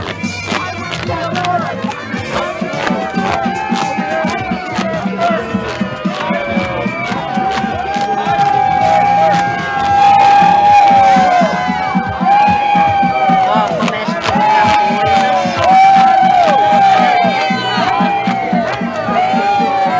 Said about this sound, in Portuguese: O pastor estava ali batizando os fiéis, né, jovens fiéis, e aí os ativistas não souberam lidar com isso. E olha o que eles fizeram com o pastor, teve que chamar inclusive a polícia. Botaram som alto, tá? Durante o batismo, gritaram, vejam.